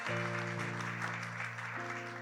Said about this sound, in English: Um, got to welcome those who are watching online, and I want you to welcome them with an applause.